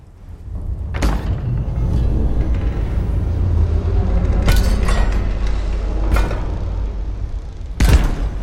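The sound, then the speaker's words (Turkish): A heavy tower door is unbolted and opened, with a few sharp clunks and thuds spread over several seconds above a steady low rumble, with no voices. “Erlus ve Volod kuleden aşağıya inip kapıyı açtı.”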